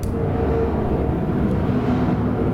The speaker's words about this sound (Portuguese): Detalhe importante: eu moro perto da base aérea de Canoas. E volta e meia tem jatos, dá para ouvir? Sim, perfeitamente.